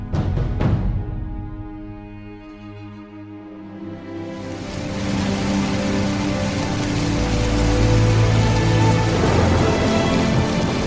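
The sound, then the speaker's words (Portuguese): Steady rain falls continuously, a dense hiss of drops spattering on surfaces, with low rumbling underneath that swells slightly louder midway through. No voices are present. “sentado em seu quarto, deslumbrando pela janela o fim desse dia de chuva.”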